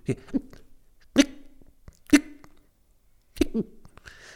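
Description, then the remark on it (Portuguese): A voice imitates stifled, swallowed sneezes: a series of short, clipped, hiccup-like bursts spaced about a second apart, moderately loud, with a quick double burst near the end. “Sabem esse espirro que as pessoas parecem que, que é as pessoas que engolem o espirro.”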